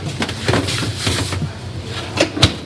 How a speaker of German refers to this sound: Du hast gerade einen Industriespüler angeschmissen. Ist der denn nötig? Ja, der ist sehr dringend nötig, da wir sehr viel Geschirr jederzeit waschen müssen, denn Hygiene ist auch sehr, sehr wichtig.